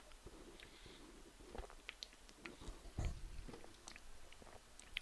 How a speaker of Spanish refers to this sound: Voy a pegar un traguín aquí al Monster